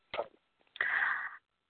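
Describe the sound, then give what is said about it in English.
A single sneeze: a short sharp intake or burst, then a longer, breathy, hissing blast lasting about half a second, with no talking around it. “Bless you.”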